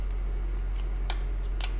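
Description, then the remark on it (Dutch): Kitchen scissors cut through cooked chicken in two crisp snips about half a second apart, with a fainter snip before them, over a steady low hum and no talking. “Ja, ik kan wel blijven knippen hoor, maar uh, het hoeft natuurlijk ook niet.”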